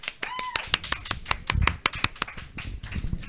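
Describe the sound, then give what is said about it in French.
Applause welcoming a YouTuber guest onto a show: a quick, uneven run of sharp hand claps from a small group, with a brief high whoop early on and some voices murmuring underneath. “Allô, j'ai été pendant un instant à mon tour applaudir, je trouvais ça bizarre tu voulais, tu voulais t'applaudir ben, toi-même.”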